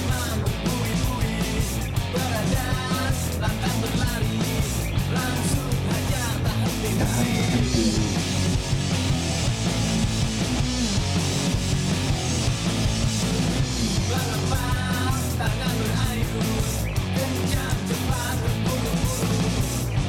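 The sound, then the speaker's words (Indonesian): A loud, dense rock song plays throughout, with a lazy, half-shouted vocal delivery over driving full-band instrumentation that stays steady from start to finish. “gue suka cara dia ya, gitu sama musiknya teriak gitu ya.”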